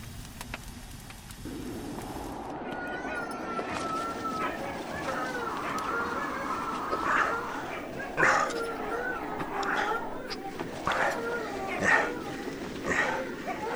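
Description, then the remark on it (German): Agitated dogs bark and yip in scattered, sharp bursts over a steady, busy background, with a few louder barks standing out near the middle and end. “Halten Sie die Hunde von den Objekten fern und die Augen offen. Warum sind sie nur so wild?”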